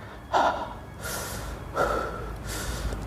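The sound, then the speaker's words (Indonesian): A voice imitates heavy, rapid panting like a person after exercise, with four breathy gasps alternating between inhale and exhale at a quick, steady pace, fairly loud, with no talking. “Kayak orang habis olahraga, dia napasnya cepet.”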